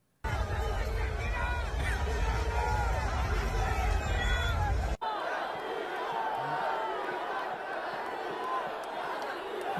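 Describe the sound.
A large stadium crowd chants a name at footballer Piqué whenever he gets the ball, in a loud, continuous roar of many voices, then cuts abruptly midway to a thinner swell of crowd noise.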